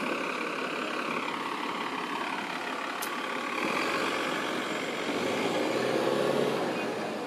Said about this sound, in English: So Wait, man, wait for the bus to pull off.